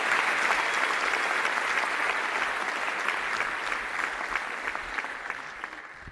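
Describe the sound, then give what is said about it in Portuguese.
An audience at a comedy show welcomes a comedian, clapping steadily for several seconds, a dense, bright patter of many hands that holds a constant level before tapering slightly toward the end. “Salva de palmas para o”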